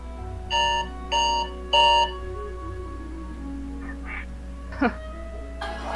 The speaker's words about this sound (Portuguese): Porra, foi essa, velho? Que susto. Hum, foi meu alarme.